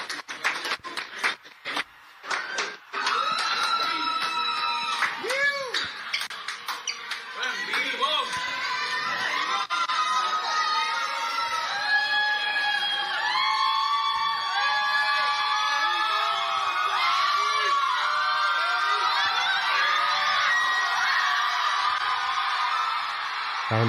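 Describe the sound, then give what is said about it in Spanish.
Loud crowd noise with cheering, shouting voices and hard applause, choppy at first as the noise gate on the microphone closes and opens, cutting the sound in and out with abrupt gaps, then filling into a steady roar. “Y como la gente está aplaudiendo bien fuerte, lo que se escucha es el gate cerrando y abriendo del efecto que le tienen al mic.”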